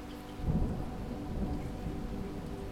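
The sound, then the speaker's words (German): Heavy rain pours down in a steady, dense roar, heard through a front door opened just a crack, with a low rumbling swell early on, the loud splashing filling the whole surroundings. No voices. “Nur einen Spalt geöffnet, schlägt uns das tosende Rauschen des Regens entgegen.”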